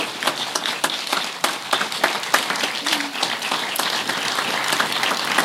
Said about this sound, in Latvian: Vēlreiz aplausus. Paldies, Varakļānieši!